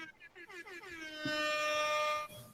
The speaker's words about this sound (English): DJ Airhorn.